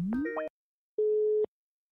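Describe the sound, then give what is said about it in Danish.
A short burst of rising electronic chirps, then a pause and a single steady, low telephone ringing tone of an outgoing call, heard clearly on its own with no talking. “Nu ringer jeg Thomas op og så kan vi simpelthen sammen læse svaret fra Region Hovedstaden”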